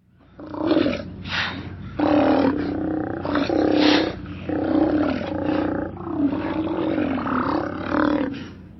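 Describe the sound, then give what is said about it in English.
Deep, growling roars from Steller sea lions, large marine mammals of the northern Pacific Ocean, a series of loud, drawn-out bellowing calls overlapping one another without pause, rumbling. “Their deep, growling calls echo from their rookeries and haul out areas up and down the Pacific coast.”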